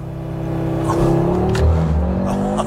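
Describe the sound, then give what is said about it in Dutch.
An Audi RS3 launches using launch control and accelerates hard, its engine roaring with a steady, climbing growl that stays loud for the whole stretch, with no voices over it. “Je hoort en voelt aan de hele koets dat hij ze maar lekker, lekker opdonder krijgt.”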